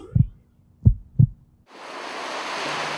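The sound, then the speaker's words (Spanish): Three deep, thudding heartbeat pulses, a sound effect in a radio jingle, give way to a steady, hissing wash like ocean surf rising and sustaining to the end. “La Salle Radio. Tu latido.”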